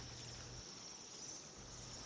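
A steady, high, thin trilling of calling Bohemian waxwings fills the whole stretch without pause, fairly loud over a low background rumble.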